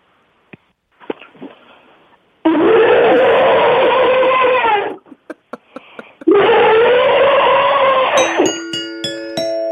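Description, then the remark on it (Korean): A person imitates an elephant with two long, loud, raspy trumpeting blasts separated by a short pause, preceded by a few soft grunts and followed by a brief ringing chime. “진짜 리얼한 코끼리 소리를 낼수 있습니다.”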